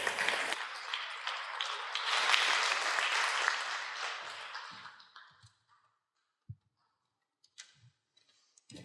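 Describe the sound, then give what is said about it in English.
An audience claps steadily for about five seconds to welcome two volunteers, a dense wash of hand claps that fades out, followed by near silence broken by a few scattered taps and small knocks. “So please give them a round of applause as I come down and meet them right down here.”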